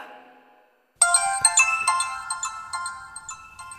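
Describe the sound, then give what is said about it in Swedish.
A mobile phone ringtone starts abruptly after a brief quiet fade, playing a bright, repeating electronic melody of sharp tonal notes, loud, with no voices. “när du hör det där ljudet, din mobiltelefon ringa, hur, hur reagerar du?”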